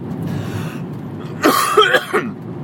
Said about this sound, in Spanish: Vaya, hoy tengo tos, ya os lo advierto.